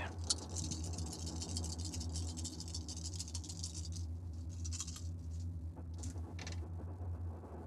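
Eight dice rattle and clatter continuously, a dense run of sharp clicking taps over a steady low hum, easing off toward the end.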